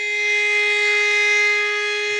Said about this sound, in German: Man hört auf einmal die Geräusche von draußen. Ah. Die Sirene geht los!